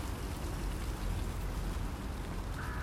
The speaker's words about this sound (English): Perhaps you can hear the leaves as they trickle by and the hawks as they crow.